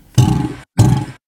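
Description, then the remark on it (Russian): Two loud bellowing calls from a 125-centimetre female Chinese alligator placed in a container of helium, answering playback of its own calls, each a rough, rumbling half-second burst separated by a short silence, with no talking. “Ее затолкали в емкость с гелием и проигрывали ей ее собственные звуки, чтобы спровоцировать на территориальный конфликт.”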